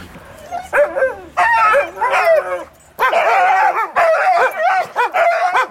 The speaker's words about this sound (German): Die Huskies bekommen etwas zu fressen. Man hat ihren Hunger. Und wer noch nichts bekommen hat, ja, der macht sich lautstark hier bemerkbar, ne?